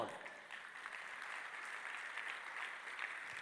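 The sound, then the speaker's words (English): Steady applause from a crowd fills the space, a dense, continuous patter of many hands clapping at moderate volume throughout, with no clear pauses. “You're clapping the second house right now.”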